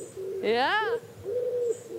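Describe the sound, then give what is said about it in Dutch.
A voice mimics an owl's hoot: one loud, wavering hoo that rises and falls, then a softer, lower second hoot, with faint background noise. “Ik hoor hier een uil,”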